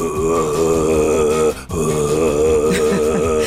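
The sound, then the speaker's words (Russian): A voice imitates Mongolian throat singing, attempting to split the tone: a low, rough, sustained growl with buzzing overtones, held loud for about three seconds, broken by a brief breath in the middle. “Ну, вот оно, монгольское. А я еще, я расщепление делаю, стараюсь.”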